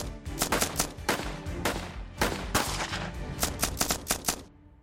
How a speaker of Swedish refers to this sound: Men plötsligt så brakar ju då en snabb och intensiv eldstrid loss. Ja, precis, det, det, är ett ensamt skott som först ringer av och sen så är det omfattande skottlossning i en knapp minut.